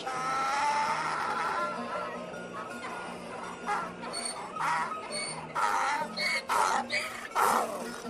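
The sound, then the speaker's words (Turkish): A donkey loaded with two barrels of pickles brays in a street in a series of harsh, rasping honks that grow louder and more insistent toward the end, over a faint background murmur. “Tam turşu diye bağıracakken eşek”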